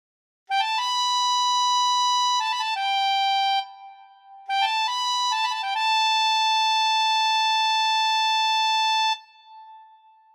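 A ramen vendor's charumera horn plays its reedy, nasal tune in two stepped phrases with a short pause between, the second ending on a long held note. Loud and clear, with no talking.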